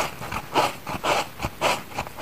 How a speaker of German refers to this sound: Und dann rubbe ich mit dem nassen Tuch die Pilze ab.